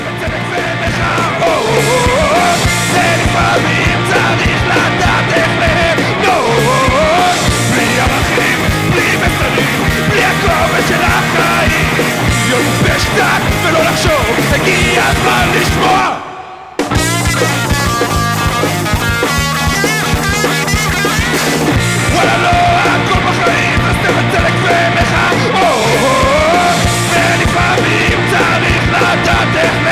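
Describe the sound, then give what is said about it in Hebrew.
A loud, dense rock song from a band's new EP, with raw shouted vocals over driving guitars and drums, playing continuously except for a split-second cut to silence around the middle. “עכשיו הוציאו איפי e בשם …. זה מתוכו ….”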